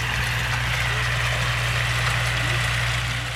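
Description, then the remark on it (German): A large tractor with a mowing machine, mowing farm fields, runs in a steady, loud, low droning hum that holds constant throughout, with no voices. “Wenn nämlich der große Traktor mit der Mähmaschine kommt, springt das Reh nicht weg, weil es die Gefahr sieht, sondern es macht sich im Gegenteil einfach noch kleiner und so kommt es unter die Mähmaschine.”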